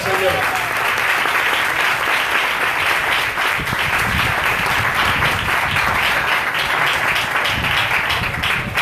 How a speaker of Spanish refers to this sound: Alegría convertida. Aplaudamos ahora